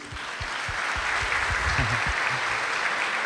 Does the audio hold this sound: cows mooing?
no